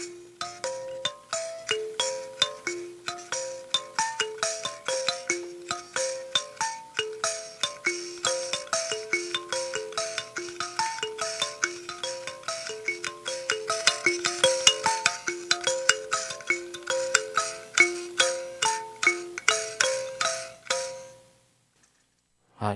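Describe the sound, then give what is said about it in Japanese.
A kalimba plays a gentle, continuous melody of plucked metallic tones, each note ringing briefly before the next, in a steady rhythm for about twenty seconds before stopping abruptly. No one speaks. “はい、あのもともとアフリカの楽器でカリンバという名前なんですけども、えー、実はこのカリンバをちょっと音のチューニングっていうかね、うん、指で弾くオルゴールなんですけども”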